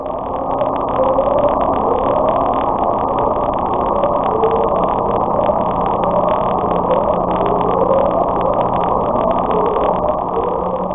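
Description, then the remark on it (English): Upsweep underwater sound: a steady, loud droning rumble with faint rising tonal sweeps repeating every second or two, continuing evenly throughout without any voices. “This is the upsweep.”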